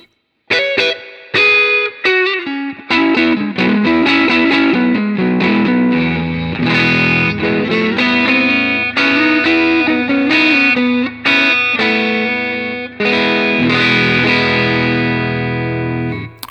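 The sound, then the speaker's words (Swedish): An electric guitar played on the neck pickup, with a warm, driven tone, runs through a steady melodic passage of notes and chords for about sixteen seconds, loud, with no voices. “Och sen så halsmicken.”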